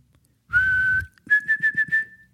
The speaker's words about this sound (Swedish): Vissla är det flera som har skrivit till mig. Och Då var jag såklart tvungen att se om jag kunde vissla. Och Jag skulle gissa på mm. att ungefär 40 av er som lyssnar provade just nu att vissla.